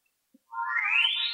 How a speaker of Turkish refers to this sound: Ee, arkadan bazı sesler duyuyorum adam sopasını nehre değdirdiği her an farklı bir ses çıkıyor.